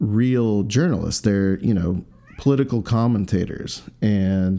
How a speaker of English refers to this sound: Um, oh, there's my kitty cat. She wants to come say hello. So I'm not. I'm just gonna let the mic roll. If you hear, if you hear some meowing, uh, my cat is wondering who the hell I'm talking to.